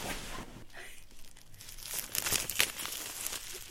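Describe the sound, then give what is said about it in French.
Plastic wrapping is torn and crinkled off a book about Paris Saint-Germain and French rap: a burst of sharp, hissy crackling and ripping that builds in the second half, with brief louder tears, and no one speaking. “Il est juste sous plastique, il faut juste que je l'ouvre.”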